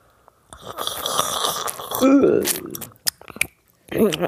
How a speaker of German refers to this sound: ich weiß nicht, ob du das kennst, aber es gibt so einen netten Typen auf YouTube. Ich kann ja mal so trinken wie er. Mach das mal.